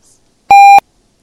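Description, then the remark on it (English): A single loud electronic beep, a steady pure tone lasting about a third of a second with sharp onset and cutoff, set against near silence. “Is there a beep?”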